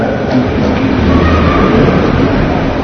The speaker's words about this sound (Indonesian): Banter suarane. Angin banter suarane tanpa hujan.